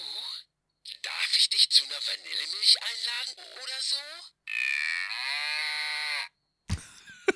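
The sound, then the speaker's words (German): A talking toy cow's sound chip, taken out of the toy and fitted with new batteries, plays a tinny electronic voice babbling for a few seconds. A long buzzy synthetic moo follows, ending with a brief click-like burst. “dabei ist mir aufgefallen, die kann sprechen, wenn man ihr auf den Bauch drückt.”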